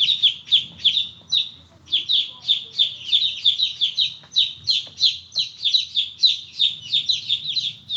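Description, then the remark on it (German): A steady stream of high, rapid peeps from baby chicks brought home from a preschool chick-hatching project, many short chirps overlapping in a quick, busy rhythm, with a faint low rumble underneath. “und weil meine Frau Tochter bei so etwas irgendwie immer gewinnt, hatte sie das große losgezogen und durfte die piependen und fiependen Tierchen mit nach Hause bringen.”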